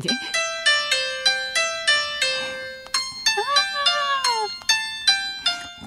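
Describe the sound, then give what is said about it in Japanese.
A simple piano melody played on a smartphone piano app, the tune used as a subway departure chime, with bright, crisp notes struck one after another at a steady pace, a short run of sliding pitches in the middle, and no talking. “えー、ちょっと私手元にこのスマホでピアノを用意しましたね、うんね、どんな曲かというとですね、はいはい、弾いてください。”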